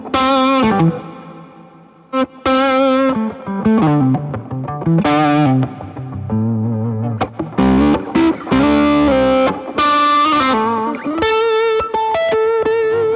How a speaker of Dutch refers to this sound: Ja, dus... eh nou, dit is dus eh, mijn, eh mijn Novo gitaar. Ja, daar ben ik heel blij mee. Te gek, Te ja. gek. eh, ander kleurtje ook ten opzichte van mijn eh, telen en mijn stratjes.